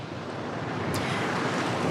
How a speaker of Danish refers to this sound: Der er ikke en sky på himlen, solen skinner, det er varmt, og bølgerne, bølgerne er meget sådan lange og bløde, har mor forklaret mig.